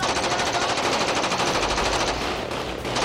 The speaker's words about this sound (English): 30 seconds later, the entire night just erupts into automatic gunfire.